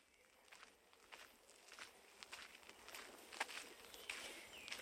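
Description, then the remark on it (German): Steady footsteps walk at an even pace through the Mannheim Central Cemetery (Mannheimer Zentralfriedhof) in Mannheim, each step a soft crunchy scuff, fairly quiet, with no voices, just a faint outdoor hush behind them. “Ich höre einen Vortrag Wolfgang Esbachs anlässlich des zehnjährigen Jahrestags seiner Emeritierung während ich über den Mannheimer Zentralfriedhof spaziere.”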